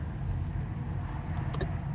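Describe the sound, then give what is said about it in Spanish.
A steady, low car rumble fills the scene as an electric car slowly maneuvers into a parking space, with a brief faint click near the end and no voices. “Mira, ya sé dónde voy a aparcar, me gusta más.”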